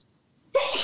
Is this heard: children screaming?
no